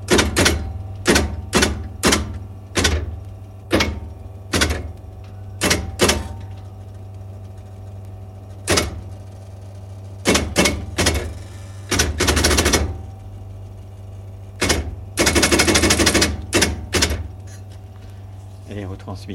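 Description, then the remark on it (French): A tape perforator keyboard punches Morse code tape in loud, sharp mechanical clacks, coming singly and in rapid clattering bursts with pauses between, over a steady low machine hum. “il peut se servir du clavier de la perforatrice qui à ce moment-là, avec un clavier machine, vous avez les lettres qui sont transcrites sur une bande perforée en alphabet morse.”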